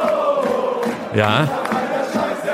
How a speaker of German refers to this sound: Kanntest du diesen Schlachtgesang schon.